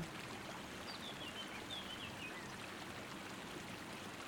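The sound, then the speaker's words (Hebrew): Faint, high bird chirps flit briefly over a steady, hissing wash of noise from an air conditioner; no one speaks. “בואו נקשיב לשלל הצלילים שיש כאן, צמצי הציפורים, דבשת המזגן,”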